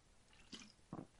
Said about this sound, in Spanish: Acabo de tomar agua, perdón.